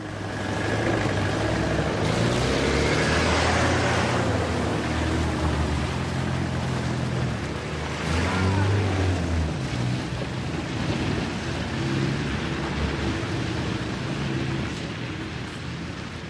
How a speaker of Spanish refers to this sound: Cierran las puertas y se montan en los vehículos. Se marchan en varias furgonetas y coches, dejan las marcas de las ruedas en el suelo nevado.